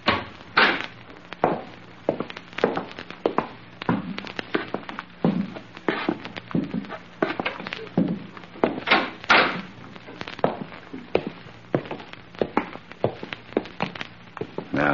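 Steady footsteps scuff along, mixed with the thunks and clatter of a back door being opened and then shut, with no one speaking.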